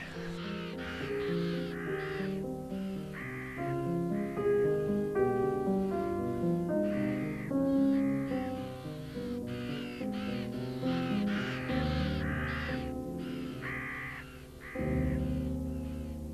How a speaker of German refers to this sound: Das stimmt. Rabenkrähen sind ziemlich laut. Und ich weiß gar nicht, ob ich das schön oder etwas gruselig finden soll. Also ich finde es, ich glaube, ich entscheide mich fürs Unheimliche.